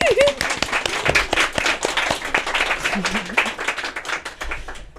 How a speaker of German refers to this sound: Ja. Ein Applaus für euch. Genau.